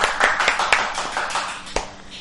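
A burst of applause from a small group, many overlapping hand claps forming a steady crackling patter with a few sharper, louder claps standing out, no voices heard.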